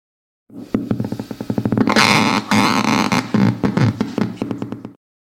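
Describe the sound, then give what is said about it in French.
Sonified electric eel discharges crackle through a speaker as a rubber hand is plunged into the aquarium: a rapid train of sharp electrical clicks speeds into a dense buzzing burst, then breaks back into separate pulses that fade out. “Et ça, c'est le bruit des décharges lorsqu'on y plonge, euh, on plonge dans l'aquarium, une main en caoutchouc.”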